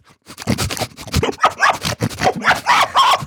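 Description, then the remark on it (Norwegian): A voice imitates woolly pigs running after someone with a rapid, loud run of raspy snorts and grunts, pulsing steadily for about three seconds without any words. “Nå skal du høre, for jeg har en ganske god griseparodi.”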